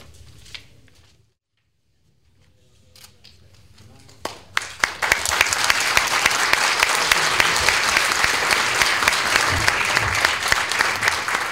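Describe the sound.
A crowd bursts into sustained applause, dense rapid clapping that swells quickly and stays loud for several seconds, following a brief stretch of quiet and soft talk.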